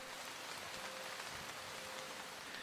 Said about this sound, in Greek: Ανέβηκα στο κατάστρωμα σαν είχε πια ανοιχτώσει. Έβρεχε.